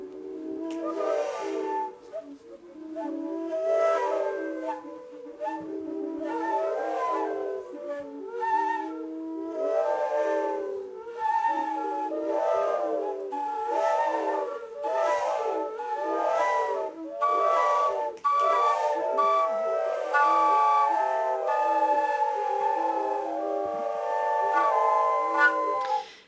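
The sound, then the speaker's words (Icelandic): Several breathy, whistling tones from pipes converted into flutes, played together at a concert by a few selected audience members and participants under a conductor, in overlapping, sustained pitches with airy hiss and swelling pulses, sounding in a continuous cluster. “en þarna voru líka rör sem var búið að breyta í flautur og voru nokkrir velvaldir áhörvendur og salþáttakandur í fluttning á verki”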